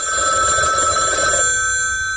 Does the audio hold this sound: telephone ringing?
yes